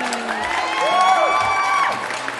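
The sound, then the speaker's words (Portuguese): A crowd applauds steadily with cheering and high, drawn-out whoops rising over the clapping, welcoming a new fixed cast member of the show Delas. The sound stays fairly loud and even for a couple of seconds. “Muitas palmas. Muitas palmas, muito porque a galera pediu e a gente tá aqui para atender a galera também, né, meu?”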